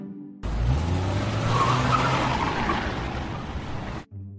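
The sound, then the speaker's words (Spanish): A racing car roars past at speed, its engine pitch climbing while tires squeal and skid. The loud burst lasts about three and a half seconds, with no voices. “El coche más rápido del mundo.”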